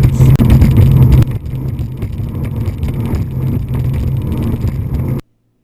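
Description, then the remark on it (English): A powerful speedboat engine, on a boat carrying seven people in a boat crash video, roars steadily, a loud, continuous low drone that eases slightly after the first second and then cuts off abruptly, with no voices. “Yeah, there's seven piece and there's seven people on the boat, and then it just loses. It just hit. It zigs when it should have zagged, and everyone fucking gets rocked.”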